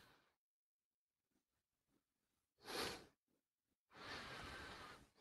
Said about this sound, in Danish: Jeg kan høre nogen, der trækker vejret. Jeg er ikke sikker på, at det er dig. Nå, jeg tror ikke, … kan høre os. Vi kan høre hans færdtrækning.